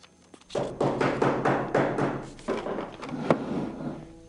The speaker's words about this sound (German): Es ist eine etwas angespannte Atmosphäre, aber sind beide auch konzentriert am Recherchieren, als es dann plötzlich klopft.